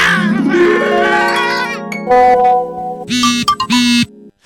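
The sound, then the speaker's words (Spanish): A bright WhatsApp message notification jingle: a rising run of tones, then two short, sharp beeps near the end, loud, with no voices over it. “mensaje de WhatsApp, güey.”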